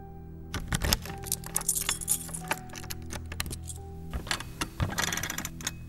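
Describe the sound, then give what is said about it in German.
Metallic clicking and jingling of keys at an armored safe with key locks and a clicking combination lock, sharp irregular clicks and rattles in quick bursts, no talking. “Der hat jetzt hier nur Schlüsselschlösser und so eine Klicker-Kombination.”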